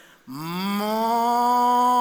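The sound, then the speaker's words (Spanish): A person imitates a cow's moo with one long, steady, low droning note. It starts after a brief pause, swells slightly and holds loud until the end. “Y donde lo hago así, suena una vaca y hace.”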